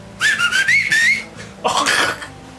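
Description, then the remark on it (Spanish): A person whistles a sharp, wavering call, one long phrase followed by a brief pause and a shorter rising burst, imitating a whistled signal to get someone's attention. “y tú sabes que si te chiflan así, güey, córrele, cabrón.”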